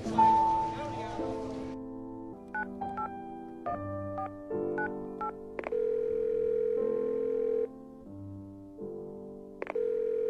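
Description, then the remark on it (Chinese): A phone call rings out unanswered: steady electronic ringback tones repeat in even bursts with short gaps, joined by a few sharp clicks, after a brief noisy rush at the start. “他又没有接我的电话，去哪儿了？”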